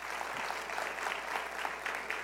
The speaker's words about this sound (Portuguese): Vamos nos colocar em pé, aplauda mais forte.